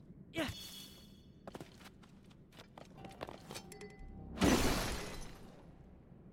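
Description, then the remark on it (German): A video game spiked ball hammer weapon shatters in a loud, noisy crunching burst lasting under a second, preceded by a sharp crack and scattered clicks and knocks, with no talking over it. “mein Stachelkugelhammer ist zerbrochen.”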